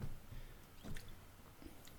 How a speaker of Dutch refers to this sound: Wacht, ga even een slokje water pakken? Goed, belangrijk.